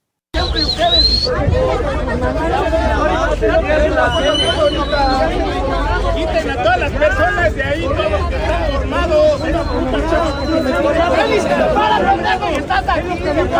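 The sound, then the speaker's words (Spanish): A large crowd of fans shouting and clamoring in protest at the ticket booths of the Estadio Azteca, a dense, continuous hubbub of many overlapping raised voices, loud throughout with no single speaker standing out. “La gente reclamaba dando el portazo ayer en las taquillas del Estadio Azteca.”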